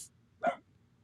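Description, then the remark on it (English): A female dog lets out one short, sharp, loud bark, wanting to go out, against a quiet background with a faint low hum and no talking. “Sorry about my dog. She just she's mad wanting to go out.”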